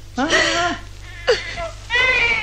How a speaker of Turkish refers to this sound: Ağlama yavrum.